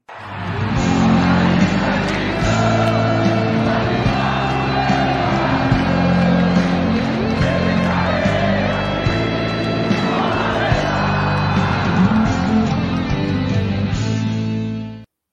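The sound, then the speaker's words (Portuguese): A loud, energetic intro jingle for a live stream plays for about fifteen seconds, with steady sustained musical tones and a busy layer of crowd cheering and whoops mixed in throughout before it cuts off. “faça o que você quiser, mas ajude a chamar mais gente hoje para essa live que vai estar tá tinindo e a bancada hoje está pancada, mas só depois da vinheta.”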